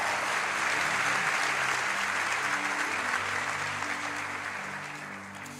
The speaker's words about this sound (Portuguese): A igreja diz: Amém. Você pode aplaudir a Jesus mais uma vez?